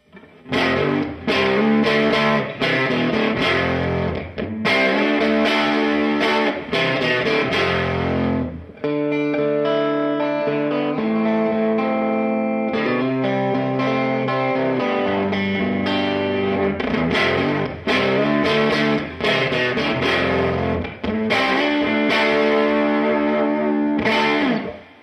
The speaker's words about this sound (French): Même genre de riff sur le micro euh, central de la classique S. On va voir ce que ça nous dit.